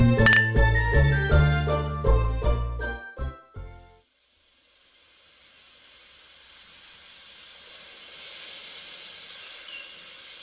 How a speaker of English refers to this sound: Well, the sounds of sherry being poured let us know that it's time to head back to the Christmas kitchen for Mrs. Claus's tasty treats for your holiday fun times.